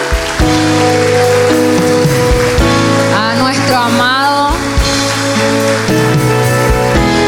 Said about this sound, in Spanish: Dele un aplauso de honra